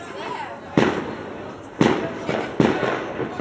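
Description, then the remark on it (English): Israeli firecrackers set off for Yom HaAtzmaut pop in the distance, three sharp bangs spaced about a second apart, each trailing off in a rumbling echo over a steady low background murmur. “it wouldn't be a good Yom HaAtzmaut without music in the background and firecrackers in the distance.”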